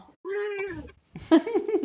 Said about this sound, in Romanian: A și protestat, a și protestat de altfel. Nu este de acord pisica ca tu să uiți la astfel de producții, vezi?